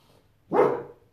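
A single loud dog bark rings out close by, sharp and full, lasting under half a second against an otherwise quiet background.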